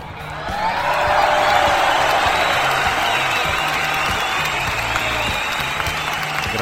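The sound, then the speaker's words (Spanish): Sustained applause from the audience at the Cucu TV production studios during a live broadcast, with some cheering mixed in, a dense steady roar of clapping that swells in the first second and holds loudly to the end. “Para todos ustedes, fuerte el aplauso, público conocedor.”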